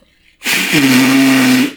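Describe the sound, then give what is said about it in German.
A single loud nose blow by someone with a cold, lasting just over a second: a rough, breathy blast that turns into a low, steady honking buzz before cutting off. No one speaks. “Kurz Nase putzen. Ich bin erkältet.”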